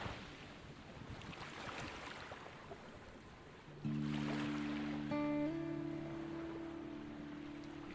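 Steady, soft wash of sea waves rolling continuously, with a low rumbling hum and tonal drone joining partway through, like a boat engine. No voices.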